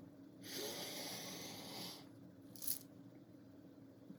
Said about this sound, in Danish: Skal vi prøve det? Godt. Du kan være med, hvis du har lyst. Okay, vi trækker vejret ind gennem næsen.